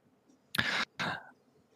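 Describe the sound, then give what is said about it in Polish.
A man loudly clears his throat twice in quick succession, two harsh, rasping bursts, on a village square in front of an altar, with quiet background before and after. “Mężczyzna, który was prowadzi, wychodzi y, na plac przez, przed ten ołtarz odchrząka głośno.”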